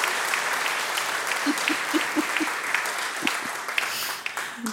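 An audience applauds in a steady, dense patter of many hands clapping, fairly loud and sustained throughout, with a few sharper individual claps standing out.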